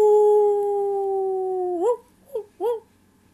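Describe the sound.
A high voice imitates a wolf in the forest calling its siblings: one long, steady, loud howl held for nearly two seconds, then three short rising yips in quick succession, with no other talking.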